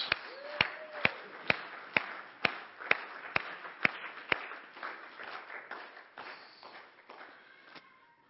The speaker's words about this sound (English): We like to cheer as we send the kids out to let them know that church is exciting.